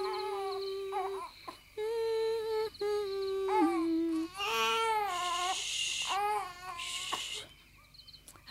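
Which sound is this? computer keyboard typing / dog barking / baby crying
baby crying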